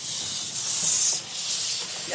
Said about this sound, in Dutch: Die stoom die komt uit, uh, uit de cilinders, hè? Ja, je ziet het hier inderdaad. De stoom die komt uit de stoomcilinders.